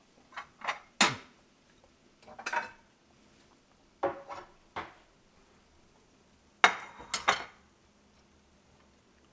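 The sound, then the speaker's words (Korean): Dishes clink and clatter in several irregular bursts as food is served into a bowl with utensils scraping against the dish. No one speaks, and quiet pauses fall between the clusters of sharp knocks. “이제 담아볼 시간입니다.”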